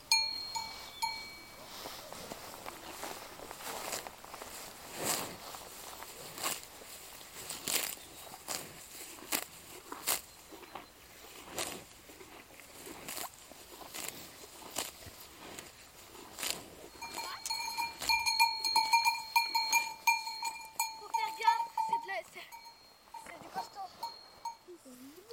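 Cowbells clank irregularly from cows grazing grass in an open farm field, growing louder and more ringing toward the end, with scattered soft thuds and rustling like footsteps.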